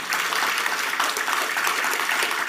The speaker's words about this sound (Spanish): ¿Por qué no le brindas un fuerte aplauso al Señor esta mañana?